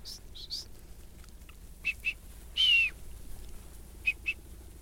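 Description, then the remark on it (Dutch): Sharp, high-pitched whistle blasts from a shepherd commanding a herding dog: pairs of short toots, meaning drive up, repeated a few times, with one longer sliding whistle, meaning stop, in between, carrying clearly over a quiet outdoor background. “Uh, eh, tuut tuut, dus opdrijven. Ja hoor. En de lange fluit eh, is stoppen.”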